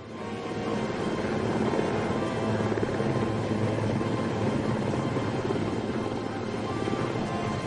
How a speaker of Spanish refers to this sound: El helicóptero dominaba las operaciones de más en más. Tal y como habían demostrado los franceses en Argelia, este proporcionaba a las fuerzas de tierra el efecto sorpresa y una gran flexibilidad.